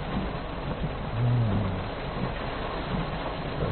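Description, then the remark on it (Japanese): Heavy rain pours down in a steady, dense hiss throughout, with a low rumble of thunder swelling briefly near the middle. No one speaks. “うわすごい雨が降ってきたやばい”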